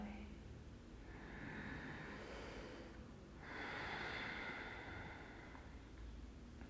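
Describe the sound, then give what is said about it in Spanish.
A long, airy breath pushed out through the mouth over a count of nine during a breathing exercise, steady, in two soft swells with a brief dip between them, no voice present. “6, exhalo por boca 1, 2, 3, 4, 5, 6, 7, 8, 9.”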